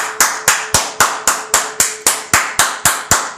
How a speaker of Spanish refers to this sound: ¡Aplausos!